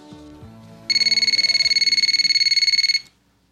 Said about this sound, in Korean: 구인 광고를 띄우고 마감 날짜 마지막 날 이력서 확인을 최종 합격자 명단을 추리고 퇴근을 하려는데 한 통의 전화가 걸려왔습니다.